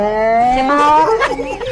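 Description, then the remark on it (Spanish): A single drawn-out cow moo, loud, rising slightly in pitch before wavering and trailing off, heard on its own without any talking. “Ahí te dijo que no la vaca porque la estás vapuleando.”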